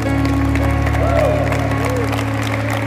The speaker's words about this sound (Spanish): Salmo 23. Oh, apládenle al Señor bien fuerte.